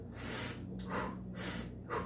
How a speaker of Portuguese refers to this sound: A respiração é o seguinte: você tem que pegar, ó. Você tem que botar toda a respiração para dentro. Você não pode fazer uma respiraçãozinha assim.